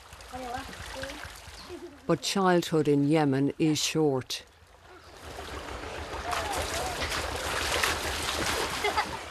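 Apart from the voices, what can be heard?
river water splashing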